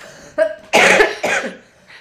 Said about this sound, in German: Was, ich muss husten.